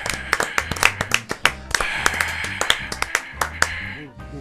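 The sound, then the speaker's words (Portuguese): A short round of applause from a few people, the fixed audience in a studio: sharp, uneven claps that keep going for about four seconds, with voices murmuring faintly underneath. “uma salva de palmas.”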